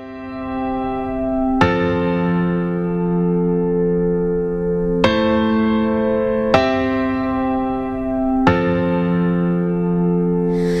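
The opening of a singer's debut country song plays on the Geri Petito Show: rich, sustained chords ring out, restruck four times at uneven intervals, each swelling and fading steadily. No singing or talking comes in yet.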